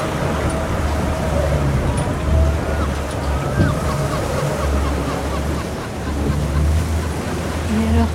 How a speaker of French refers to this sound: Oui, après, euh, vu, la mer, l'état de la mer, c'est quand même extrêmement agité.